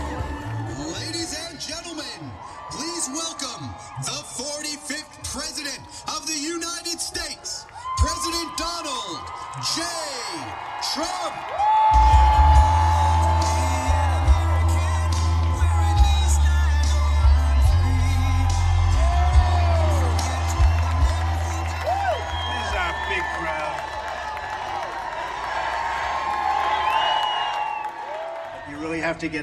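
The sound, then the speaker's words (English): A large crowd at a Save America rally cheers with whoops, yells and scattered shouts as Donald Trump's plane lands; partway through, a loud, deep rumbling roar swells in and holds steady beneath the continuing cheers. “this crowd who've been here with such devotion looking to the light.”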